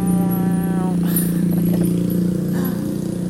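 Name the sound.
motorcycle engine noise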